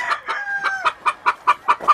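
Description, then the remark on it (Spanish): A rooster crows, its drawn-out call sliding downward, while a steady run of quick, rhythmic clucks keeps going underneath and continues after the crow ends. No one speaks. “Eh, esos gallos son mitad mitad, ¿estos cómo lo das?”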